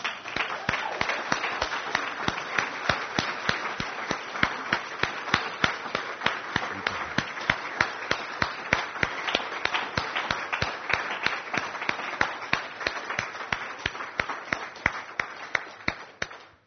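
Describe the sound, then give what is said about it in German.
An audience breaks into sustained, vigorous applause for Jesus, a dense wash of many hands clapping steadily for over fifteen seconds with sharp individual claps standing out, fading slightly at the end. “Und ich glaube, wenn wir heute schon verschiedenen Menschen applaudiert haben für das, was sie tun, und ich finde das etwas ganz, ganz Tolles, Wertschätzung auszudrücken, glaube ich, dürften wir mal Jesus einen kräftigen Applaus geben, oder?”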